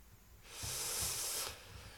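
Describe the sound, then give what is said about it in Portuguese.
A single airy whoosh swells up and holds for about a second before cutting off, like a streaming service's logo intro, bright and hissy, with no voices over it. “É este o barulho da Amazon.”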